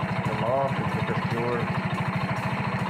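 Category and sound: machine, diesel engine running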